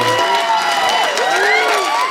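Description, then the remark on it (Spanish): A large crowd at an awards ceremony cheers loudly and steadily during the Original Song nominations, with many overlapping shouts and whoops rising and falling in pitch over a dense wash of applause. “La gente está en éxtasis.”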